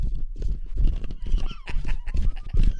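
A stampede of galloping horses: dense, rumbling hoofbeats pound loudly and continuously for a few seconds, with a brief whinny rising partway through.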